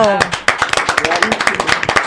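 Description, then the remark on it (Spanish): An audience bursts into applause for a CONALEP Temixco, Morelos student selected for Mexico's national taekwondo team, many hands clapping in a dense, steady patter with sharp accents, while voices call out and cheer over the clapping. “Un aplauso. ¡Bravo!”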